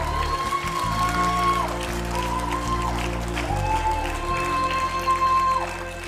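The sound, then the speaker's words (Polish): An audience at a baptism service claps together in praise of God, a steady, dense wash of applause lasting several seconds, with sustained musical tones held underneath before the clapping eases off at the end. “Oddajmy Bogu chwałę oklaskami.”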